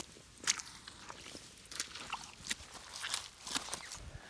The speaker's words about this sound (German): Ich befinde mich also aktuell in einer Sumpflandschaft und füge jetzt mal Sumpfstampfgeräusche ein.